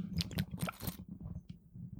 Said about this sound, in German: Besser auch nicht, ich soll noch ein bisschen Bluna trinken, dann schmatzt es wieder schön. Das ist gut.